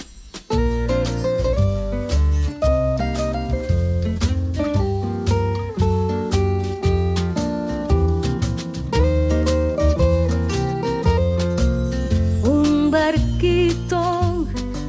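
An instrumental intro to a children's song plays at steady volume, with bright plucked and keyed notes over a bouncy bass line and rhythmic accompaniment. No voices are heard.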